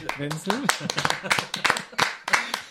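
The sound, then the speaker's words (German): Uneven hand clapping, a quick run of sharp claps lasting a few seconds, with a voice briefly laughing or speaking at the start. “Das, äh, das könnte man jetzt mal so ein bisschen Applaus einblenden.”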